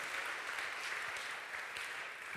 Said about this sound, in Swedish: Om du klappar händerna till Guds ord, då får du göra bättre än så. Jag tycker att vi ska göra en stor applåd till hans ord, till honom.